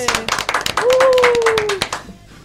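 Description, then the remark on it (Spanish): Applause for a guest in a studio bursts out in a dense, rapid patter of claps, with a long, steady cheering whoop rising over the middle before the clapping thins and fades at the end. “Un aplauso a la tema.”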